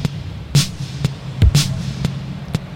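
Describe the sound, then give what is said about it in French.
Synthetic bouncing blips layered at different rates, made by throwing things from different distances so they hit the ground and bounce at different speeds; sharp clicks and bright bursts repeating in overlapping uneven cycles over a steady low hum, forming a loose polyrhythm. No one speaks. “Là, je fais des polyrythmies rien qu'en en balançant des choses à, différentes, euh, différentes distances.”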